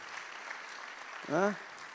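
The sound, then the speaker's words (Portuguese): A steady wash of crowd applause continues throughout, with a short rising-and-falling voiced call or cheer breaking through near the end, as the audience claps for a guest's teacher who has been asked to stand. “Professora, salve de palmas para ela.”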